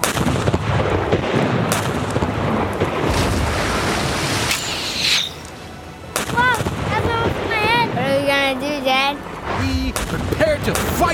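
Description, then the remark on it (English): Heavy cannon fire from pirates booms repeatedly in a loud, chaotic barrage, then eases as excited voices shout and yell over the lingering rumble. “They missed! ah, bunch of pirate pansies. My grandmother can shoot better than that. Return fire!”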